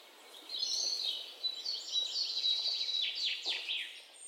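A busy flurry of small birds chirping and tweeting, overlapping high calls in a steady stream for a few seconds, clear with no voices.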